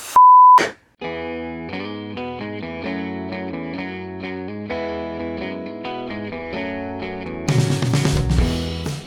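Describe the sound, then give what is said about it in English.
A loud, steady high-pitched ringing tone sounds briefly at the start, then gives way to sustained, buzzing electronic music tones that carry on to the end with no talking. “You hear that? This constant ringing and ringing and ringing and ringing and.”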